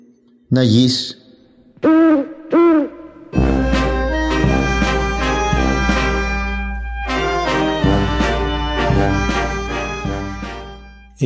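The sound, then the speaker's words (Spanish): A voice gives three short, wavering hoot-like calls, imitating an owl, before loud instrumental music bursts in and carries on with rhythmic strikes through the rest. “canto del búho.”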